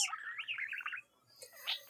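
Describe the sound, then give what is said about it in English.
Small pet birds chirp and warble in a quick, twittering run, pause briefly, then give another short burst of chirps; the sound is fairly quiet, with no talking. “I don't want her lingering with my birds.”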